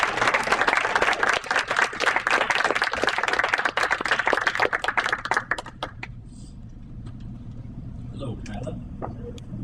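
A crowd breaks into steady, dense applause for about six seconds, many hands clapping loudly at once, then it fades out into a low hum with faint murmuring and a few scattered sounds.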